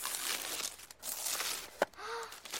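A child's seventh-birthday gift, a ring, has its wrapping paper torn open: a steady crackly rustle and crinkle with a brief pause and one sharp rip near the end. It is fairly quiet, with no talking.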